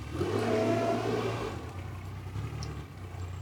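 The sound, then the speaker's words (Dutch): A car engine revs up and accelerates while driving past a farm, its steady throaty hum rising in the first second or so, then settling into a continuous driving drone with no voices. “We rijden, we lopen langs een boerderij.”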